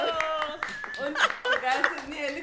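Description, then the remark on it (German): A few quick hand claps ring out in an irregular burst while excited voices talk and exclaim over them, moderately loud. “klatschen.”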